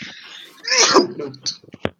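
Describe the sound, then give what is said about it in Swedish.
A single sharp sneeze bursts out, followed by a few brief breathy sounds and a short click as things settle. “då får du nysa väldigt ofta kan jag tänka mig.”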